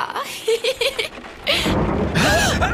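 A few short, bouncy vocal bursts come first, then a loud thunder clap breaks in and rolls on as a heavy, broad rumble with a rain-like hiss until the end.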